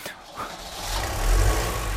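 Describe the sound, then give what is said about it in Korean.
A car engine sound effect played for the radio segment 배송 K (Delivery K) rumbles steadily, its low growl swelling louder as if revving up, with a broad hiss of noise over it and no one speaking. “여러분들 그 배송 K 때는 어, 배송 K 출동할 즈음에 그 엔진 소리가 나오니까요.”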